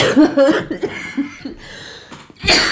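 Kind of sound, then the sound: human body sound, coughing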